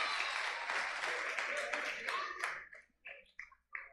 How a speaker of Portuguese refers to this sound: A salva de palmas pro irmão que ajeitou. Aleluia!